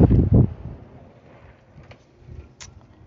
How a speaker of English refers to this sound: It's a little windy out here, but it still feel alright.